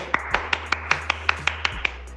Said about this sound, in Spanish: Vamos, guacho, vamos, que hoy es lunes, loco. Hoy es lunes, hoy hay maga, full focus, vamos, ronda de aplauso.